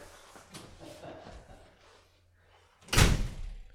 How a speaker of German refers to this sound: Jetzt knallt die Tür.